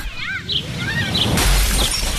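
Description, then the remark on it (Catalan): A few light bird chirps are cut short by a loud, bright crash of window glass shattering, followed by a brief rain of tinkling shards. “Finestra”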